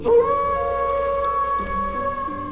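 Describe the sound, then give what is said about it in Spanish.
A long, sustained wolf howl holds a steady, mournful pitch for a couple of seconds, loud and clear with no talking over it. “En tiempos muy remotos, los lobos habitaban en las montañas que hay cerca de nuestro pueblo eran lobos muy feroces”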